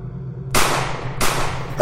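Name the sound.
pistol gunshots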